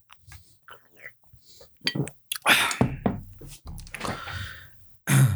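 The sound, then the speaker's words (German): Mouth and bottle noises as someone takes a sip of mineral water: soft clicks and a few short slurping sips, then a swallow and a breathy exhale, with no talking. “Noch einen Schluck Mineralwasser.”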